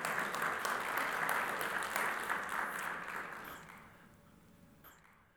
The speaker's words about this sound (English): Let's give the Lord a big hand clap tonight. Praise the Lord.